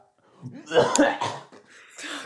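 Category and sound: human body sound, man coughing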